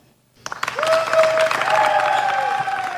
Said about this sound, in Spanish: Hoy los conciertos de Radio 3 reciben a esta leyenda viva y sus canciones. Un aplauso pues para